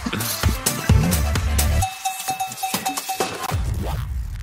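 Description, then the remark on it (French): A brief news jingle with bright, clanking cowbell-like percussion hits and a sustained electronic tone through the middle, played loud with no voices. “Jingle”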